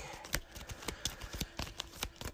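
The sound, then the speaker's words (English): A location deck of game cards being shuffled during a card game, a quick run of soft, crisp riffling flicks and taps at an uneven rhythm, fairly quiet with no voices. “Crypt Chill goes to the discard, and then I have to shuffle the Burial Pit back in to the location deck.”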